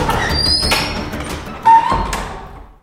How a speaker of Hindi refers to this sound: और आखिरकार कमरे में इतने मकड़े भर गए कि वो भारी भरकम पुराने जमाने का दरवाजा चरमरा के आहिस्ते से बंद हो गया